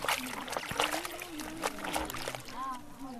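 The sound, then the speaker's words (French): A young woman hums a soft, wavering tune while water sloshes and splashes in steady bursts as she scrubs and wrings her clothes by hand in the deserted village of Bukwambi, in northeastern Democratic Republic of the Congo. “On entend seulement une jeune femme chantonner en lessivant ses vêtements à la main.”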